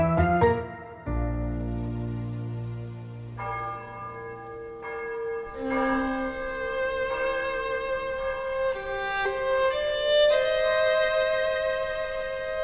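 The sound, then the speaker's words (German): Church bells throughout Parma ring out together in a dense, overlapping peal, deep booming strikes blending with higher shimmering tones that sustain and layer over one another, loud and continuous with no voices. “Die Glocken in ganz Parma läuten und auf dem neuen Friedhof drängen sich die Menschen.”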